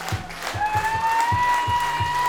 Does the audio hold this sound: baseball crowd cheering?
yes